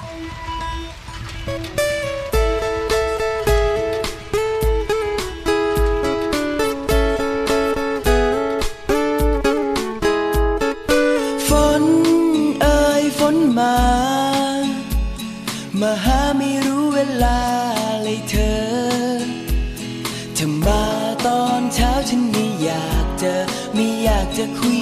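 A song plays steadily at full volume during a music break in the Thai radio program Phumikhumkan, with sustained melodic tones over a regular beat of low drum hits; no talking is heard, only the music throughout.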